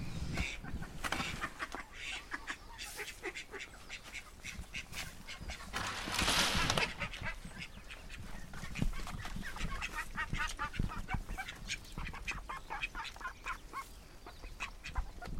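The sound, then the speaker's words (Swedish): Several hens cluck softly and steadily, a continuous murmur of short calls overlapping one another, with a brief louder rustle partway through and no talking. “Det här är liksom den sköna, det skönaste ljudet med minjonger. Alla andra ljud är ju bara, är ju bara skrän.”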